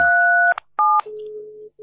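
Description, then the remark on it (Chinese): Telephone keypad tones from someone pressing phone buttons at random beside the phone during a call: a long dual-pitched beep, then a shorter one, separated by soft clicks, followed by a steadier, lower single tone that briefly cuts out and resumes. No one speaks. “你们刚刚那电话边上有人打， 哦对，有 他 人打 啊，他在乱按呢。”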